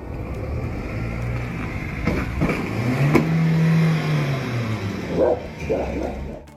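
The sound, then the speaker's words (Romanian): A car speeds past with a loud engine whine that climbs and then drops in pitch over a couple of seconds. A few short dog-like barks follow as the engine noise fades. “Mai ales economia românească, mamă, trece economia într-o viteză de nici măcar nu se vede pe radar Zium! Mai încearcă poliția să se țină după ea, dar n-are nicio șansă”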